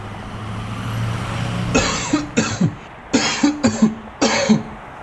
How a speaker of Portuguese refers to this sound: Como asmático, eu não sou exatamente muito fã de caminhões fumacentos.